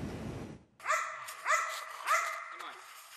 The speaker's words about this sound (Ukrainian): пес породи Маліно, а більш відомої як бельгійська вівчарка. Йому трохи більше двох років.